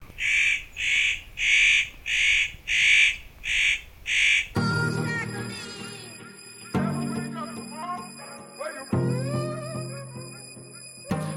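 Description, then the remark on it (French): A spotted nutcracker gives a series of about seven harsh, rasping calls in a steady rhythm, loud, before the calls stop and other, fainter sounds take over. “Et puis le moins connu, c'est peut-être le casse-noix, qui est aussi encore vidé, le casse-noix d'Europe.”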